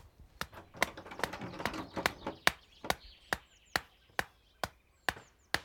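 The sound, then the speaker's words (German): A stone hammers in wooden stakes for tying up young plants, with sharp, sturdy knocks, about fourteen blows in a steady rhythm of roughly two per second, with faint bird chirps in the background and no talking. “Mit dem Stein hier kannst du die Pflöcke einschlagen.”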